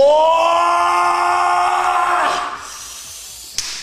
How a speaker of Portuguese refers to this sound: Podia botar um cara gritando assim.